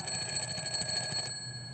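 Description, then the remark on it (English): An alarm clock rings with a shrill, rapidly pulsing, loud electronic tone, then the busy ringing cuts off near the end and leaves a thinner steady whine. “Wake up. This is the sound of that text.”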